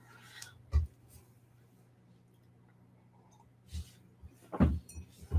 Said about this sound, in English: All you have to do is drink water every time you see me drink water while I'm live or hear me drink water. And then you'll be more hydrated than before.